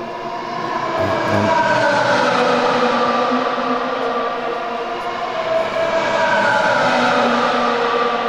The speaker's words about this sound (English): Don't you just love it when you hear race cars go past?